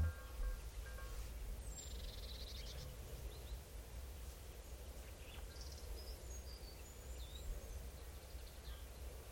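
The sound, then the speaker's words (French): Faint calls of two common starlings, scattered thin whistles and short chirps over a steady low outdoor rumble, with no talking. “C'est quoi qui s'est posé à côté de la peau Les deux choris là Deux étourneaux. ouais. C'est eux qui font les bruits.”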